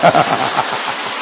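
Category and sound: crowd, audience applause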